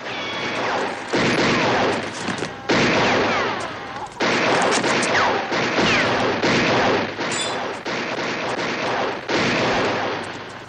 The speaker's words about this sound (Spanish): ocultos tras distintas ventanas, cuyos cristales rompen primero, siguen disparando en todas direcciones contra sus enemigos.